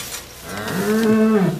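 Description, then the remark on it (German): A single cow moos loudly, a low drawn-out call that swells and holds for about a second before trailing off, with no talking around it. “Hallo, ihr Kühe.”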